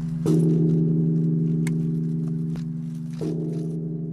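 A large memorial bell is struck twice at a public memorial ceremony for the Nanjing massacre, where descendants of survivors, teachers and students struck it 13 times. Each blow is a sharp metallic clang that settles into a deep, sustained humming tone. The loud, resonant ring carries through without any voices.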